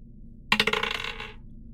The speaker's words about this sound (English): Roll me just a straight uh, d20 for the hammer.